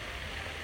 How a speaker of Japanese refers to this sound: 木曜日ここに来て噴水を眺めますそしてまあねここ公園なんでねすごく緑も綺麗ですし